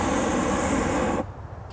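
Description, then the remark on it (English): A propane burner on a remote-controlled model hot air balloon fires a loud, steady roaring blast for about a second, then cuts off abruptly, leaving a quieter low rumble behind. “It's just controlled by a remote, so I can control the burners”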